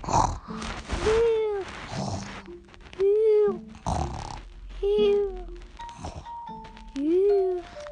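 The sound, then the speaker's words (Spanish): A voice imitates snoring, acting out a children's story character who falls asleep snoring from tiredness, with four drawn-out, breathy snores at a steady, slow rhythm, each rising and falling in pitch, fairly loud, with no other talking. “Cuando, cuando Camila lo bebió, ella se quedó a dormir, roncando del cansancio.”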